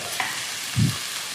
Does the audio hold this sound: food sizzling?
yes